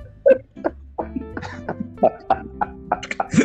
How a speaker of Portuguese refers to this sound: tu tá bebendo água?